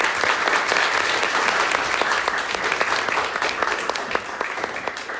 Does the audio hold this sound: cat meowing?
no